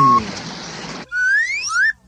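A short burst of tape hiss, then a bright page-turn signal tone on a read-along cassette recording: a couple of quick rising whistle-like glides, clear, with no talking.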